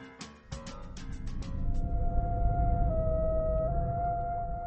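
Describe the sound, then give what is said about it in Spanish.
After a few quick knocks at the start, an ambulance siren holds a steady wailing tone that shifts pitch slightly, over a heavy low rumble of traffic, staying loud throughout. “Oía pasar la ambulancia y huía de aquel infernal movimiento.”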